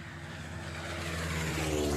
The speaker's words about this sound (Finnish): Se oli oikea lentokone